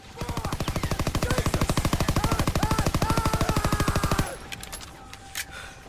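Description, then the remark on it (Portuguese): A long, rapid burst of automatic gunfire from a submachine gun held up over the head, dozens of evenly spaced loud shots for about four seconds, then it stops abruptly, leaving faint ringing and scattered quieter noises. “O Mike tá na mesma, mesma vibe de vocês, ele tá com uma submetralhadora assim, ele coloca a metralhadora por cima da cabeça, começa a tirar”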